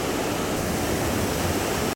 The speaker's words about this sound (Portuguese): A força da água que desce pelas encostas carrega tudo o que encontra pelo caminho. Olha isso!